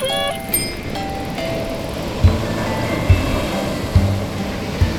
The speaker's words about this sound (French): nous voilà à Mui sur la côte sud du Vietnam. Nous avons entendu de la musique à l'école maternelle du village.